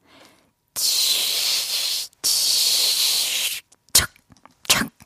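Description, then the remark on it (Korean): On a live visible radio broadcast of the show Volume Up, a voice imitates frying jeon (Korean pancakes) with the mouth, ASMR-style, with two long, steady bursts of bright hissing sizzle, followed by a few short, sharp sputtering hisses. “입으로 전을 붙여본 ASMR계의 1등 아티스트”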